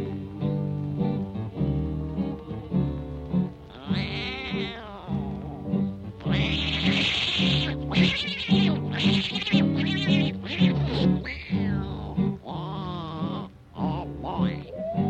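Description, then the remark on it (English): Imitated tomcat fight: loud, wavering yowls and screeches rise and fall over a steady musical backing, continuing in bursts through the whole stretch. “tomcat started a fight. And this is the way it all did sound to me.”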